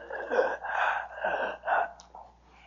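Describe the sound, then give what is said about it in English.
A person imitates a woman struggling to breathe: four or five strained, breathy gasps in quick, uneven succession, moderately loud, trailing off into a quieter exhale. “and we commanded this demon to release her, and she actually started to have trouble breathing. She was going.”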